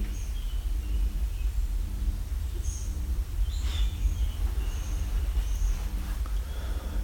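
cow mooing

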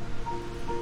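waves on a beach

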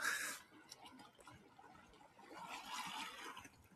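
ocean waves splashing

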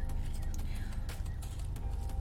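car interior noise

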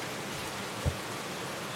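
thunderstorm rain falling

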